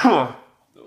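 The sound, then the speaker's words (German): A single loud, explosive sneeze bursts out and quickly trails away, followed by a short silence and a faint murmur of voice at the very end. “Gesundheit.”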